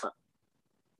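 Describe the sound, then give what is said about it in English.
A voice imitates a gagging noise: one short, loud, throaty gulp as the throat clamps shut, followed by near silence with only faint low murmuring. “when you get it in your mouth and you close your throat and you”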